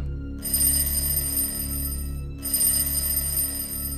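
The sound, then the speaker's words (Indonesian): A doorbell, pressed repeatedly and insistently, rings in two long bursts with a short gap between them, bright high tones stacked over a steady hum. No one speaks. “berkali-kali bel itu diteken, kayak agak maksa.”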